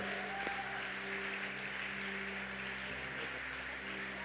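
An audience claps steadily for about four seconds, a soft, even wash of many hands with no clear peaks, over a low constant hum. Nobody speaks.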